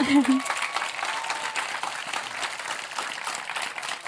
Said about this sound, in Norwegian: Men så tenker jeg at det er veldig viktig at vi nå har fått en mannlig generalsekretær også, for første gang på 14 år. Det kan vi òg gi en applaus for. Ja.